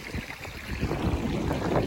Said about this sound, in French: Et on a cette magnifique rivière qui nous suit. Ou peut-être c'est nous qui la suivons. Bon, bah, comme la rivière est magnifique et qu'on repart sur une étape, on en profite pour prendre un petit peu d'eau.